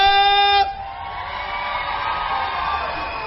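A loud, steady tone sounds for about half a second, then gives way to a crowd applauding and cheering, a dense, even wash of clapping and voices that carries on to the end.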